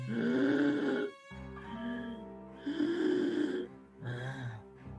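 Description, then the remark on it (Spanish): Labored breathing of a very old woman, with a wheezing, whistling tone on each breath, about four raspy, groan-like breaths in a slow rhythm, with no talking. “Escuchas un silbido cada vez que respira”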